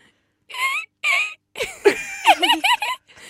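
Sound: voice imitating a dolphin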